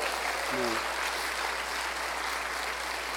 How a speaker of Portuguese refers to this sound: Ó, oh, irmãos, a gente vai dar uma salva de palmas para o Senhor.